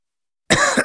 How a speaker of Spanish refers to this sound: ¿Cansado de toser?